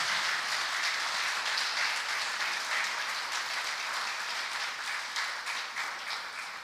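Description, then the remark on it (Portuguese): An audience applauds steadily, a dense wash of many hands clapping at an even level for several seconds before easing slightly toward the end, with no voices over it. “Você quer dar um aplauso para esse teu irmão mais velho aí?”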